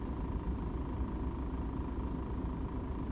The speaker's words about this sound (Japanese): えっ、とそう今日はね車の中スタジオなんですけど